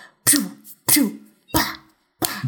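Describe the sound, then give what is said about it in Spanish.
A voice imitates the cheap, super basic, low-budget punch sounds of an action movie with four sharp, breathy bursts at a steady pace, each a harsh throaty hit with a quick falling tail, and no other talking. “Incluso si escuchan el sonido, el sonido es súper básico, súper de bajo presupuesto, los golpes se oyen así como...”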